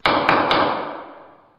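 A gavel bangs three times in quick succession, sharp wooden knocks, each blow's resonance fading slowly afterward with no talking.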